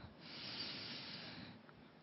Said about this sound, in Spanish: Así que vamos a cerrar nuestros ojos, nuestros bellos ojos, mientras tomamos una profunda respiración, pero profunda. Exhalas. Otra profunda respiración.